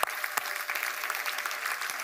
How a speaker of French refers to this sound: Et si tu le crois et tu reçois tout cela, tu peux applaudir Jésus.